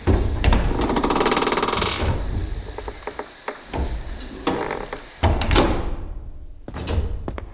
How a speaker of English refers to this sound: And here we are. These vast wooden doors are at least a few hundred years old.